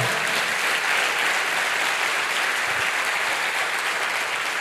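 An audience claps loudly and steadily, a dense wash of many hands applauding together that holds at full strength throughout, with no one speaking over it; applause given to the Lord during a Spanish-language church service.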